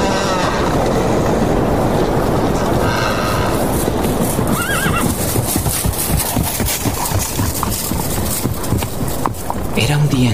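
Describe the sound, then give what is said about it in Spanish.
A horse's hooves clip-clop steadily while the animal lets out a loud, shaky neigh partway through, over a dense, constant rumble of movement. “Había cruzado solo a caballo la campiña para finalmente llegar a la casa de Usher”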